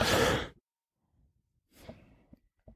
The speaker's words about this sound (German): muss mal kurz husten.